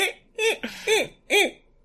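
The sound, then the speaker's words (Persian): A person imitates a monkey call with four quick, rising-and-falling hooting bursts, fairly loud, with short pauses between them and no talking. “خب خب حالا بعد از بررسی صدای میمون و نحوه اداش بریم سراغ بازی ها”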